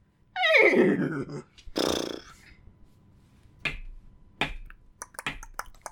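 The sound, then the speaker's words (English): A voice imitates a horse, starting with a falling whinny and a breathy snort, followed by a few sharp, irregular clicks mimicking hooves pawing at the ground. “that was me trying to Horse paw.”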